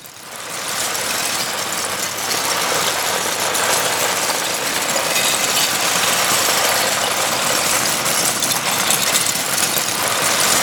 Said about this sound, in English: So they've layered up. I, exactly, yeah. They've layered up recordings yeah. of Lego being poured out onto the floor. So that's the closest I think it gets to white noise.